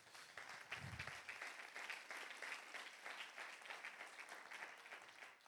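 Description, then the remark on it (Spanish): A crowd of people applauds for Jesus, a dense, sustained wash of clapping that stays fairly loud and even throughout, with no voices standing out. “Den un aplauso a Jesús.”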